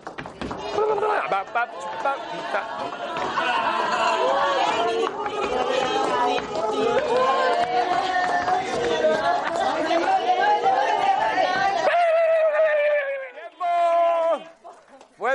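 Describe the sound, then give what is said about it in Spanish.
An audience deliberately makes a loud, sustained commotion of overlapping shouts, chatter and cheering for about twelve seconds during a stage game, so that a blindfolded participant cannot hear a code. Then it cuts off abruptly, leaving a few brief, scattered voices. “O sea, tenemos que armar un, tenemos que armar un poquito de jaleo, ¿vale?”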